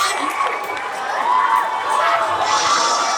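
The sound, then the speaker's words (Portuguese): A large crowd of fans cheers continuously in stands set up at Sesc Pompeia in São Paulo during a broadcast of a Brazil women's national football team match at the World Cup in France, a dense roar of many voices with high shouts rising above it, swelling louder toward the end. “Esse é o som da torcida que esteve em um dos jogos da seleção feminina de futebol do Brasil durante as transmissões da Copa do Mundo da França.”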